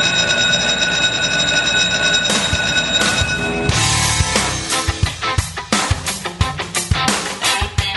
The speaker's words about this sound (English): And you had the actual school bell going on and all that stuff.